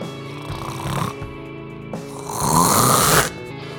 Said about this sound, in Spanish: Unos ronquidos ahí terribles que, bueno, pues que, que, son como que se intensifican con el pasar del tiempo.